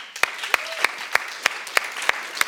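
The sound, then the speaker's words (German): Audience applause at a church service for a man being thanked, with sharp, steady claps falling in an even rhythm, roughly three per second, over a continuous bed of softer clapping. The sound is moderately loud, and no one speaks. “Gib ihm mal einen Applaus.”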